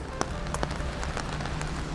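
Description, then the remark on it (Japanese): Raindrops patter irregularly on a vinyl umbrella during heavy rain in Tokyo, sharp little taps over a steady hiss of falling rain, with no voices. “今ね、ビニールの傘にね雨粒がポツポツポツポツ、はい割と、えー、傘がないとダメな感じの雨ですね音がさーって雨の音そうでしょう聞こえてますよく”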